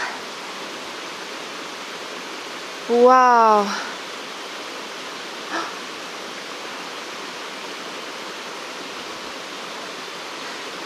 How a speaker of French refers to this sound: toujours impressionnant l'énergie d'une cascade. elle a l'air super haute. J'en vois pas le début.